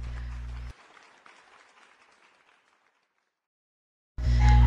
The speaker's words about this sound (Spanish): Bienvenido, pasa, siéntate, estos aplausos son para ti, para mí, ponte cómoda, ponte cómodo, que es hora de empezar con nuestro episodio del día de hoy.